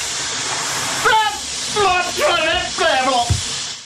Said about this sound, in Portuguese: Isto era um jato de água.